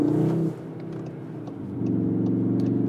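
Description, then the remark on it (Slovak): A grey car's engine revs loudly, its deep throaty drone dipping after a brief burst, then climbing back to a sustained higher rev. No voices are heard. “Ako lepšie reakcie na plyn to má, keď máš Cupra režim alebo Sport.”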